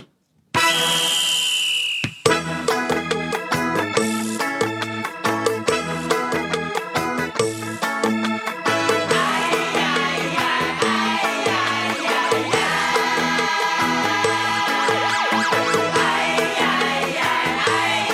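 A Cantopop song begins with a shrill, ringing alarm-like tone for about two seconds, then a loud full band kicks in with a steady driving beat and layered bright instruments, no singing yet.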